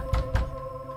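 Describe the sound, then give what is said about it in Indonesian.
Two solid knocks, made in a hurry, on the wooden door of Ustadz Sirajudin's house, evenly spaced about a fifth of a second apart, each a dull low thud, over a faint steady hum with no voices. “tergopoh-gopoh mengetuk pintu rumah Ustadz Sirajudin.”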